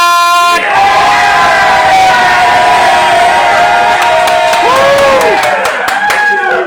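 A loud crowd cheers and yells continuously in an evening noise competition between the Duropac and Saint-Jean groups, with sustained high-pitched screams and whoops rising over a dense roar that stays strong throughout, a few sharp shouts breaking through near the end.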